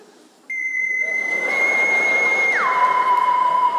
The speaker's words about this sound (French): Si ton réveil matin ressemble à ça. T'es dans une pub de café américain.